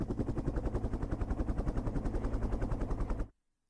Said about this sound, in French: Un hélicoptère fugace et qui a été euh, tiré en plein vol, il hein, faut croire, parce qu'il s'arrête brutalement.